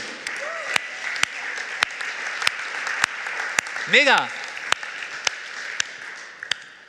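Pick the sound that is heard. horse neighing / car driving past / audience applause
audience applause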